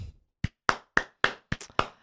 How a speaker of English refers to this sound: Uh, the patronizing clap is back. it, get, it gets better every single time. Your timing impeccable.